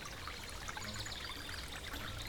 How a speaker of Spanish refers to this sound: y el bote volvió al vapor mientras los yacarés, locos de contento, daban tremendo colazos en el agua.